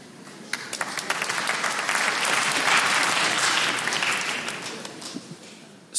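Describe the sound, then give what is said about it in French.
An audience in an 1,800-seat hall applauds in a steady, dense wash of clapping that swells through the middle and gradually thins out, with a few sharper individual claps standing out toward the end. “Par applaudissement, qui ici, en toute franchise, a profité de la pandémie pour se sublimer physiquement”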